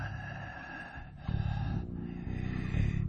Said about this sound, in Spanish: Oía jadear en la oscuridad a la criatura que tenía debajo